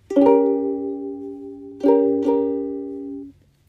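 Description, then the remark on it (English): A C diminished chord rings out on an instrument: one struck chord that sustains, then two more strikes in quick succession that ring clearly before fading out, with no one talking. “So C diminished chord sounds like this.”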